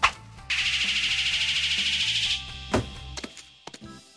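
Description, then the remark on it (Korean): A thrown real shuriken makes a pulsing, whirring swish through the air for about two seconds, then hits the target with a sharp impact, fails to stick and falls with a few light clattering knocks, over soft background music. “수리검은 관역에 꽂히지 않고 떨어져 버렸네요.”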